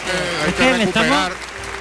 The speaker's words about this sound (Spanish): Vamos a ver la reacción del público con Ángel Jiménez casi con toda seguridad efectivamente tendrá que salir a saludar esta fuerte ovación al tercio.